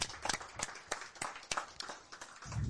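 Audience applause: a scattered patter of hand claps with sharp, irregular bursts, fairly soft overall and not very dense, with a low rumble rising near the end.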